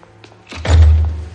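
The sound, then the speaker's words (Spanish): The door of a king's bedchamber swings shut with a single heavy thunk, a deep low thud that lingers briefly, preceded by a faint creak and light rattle of the latch. “Se vuelve alarmada al oír que la puerta se cierra.”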